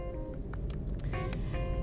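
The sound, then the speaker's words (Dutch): Steady low rumble of a car interior while driving, a continuous engine and road drone filling the background with faint higher rustles and tones on top, no voices. “Ik ga gewoon inspreken terwijl ik aan het rijden ben, alsof jullie naast me in de auto zitten.”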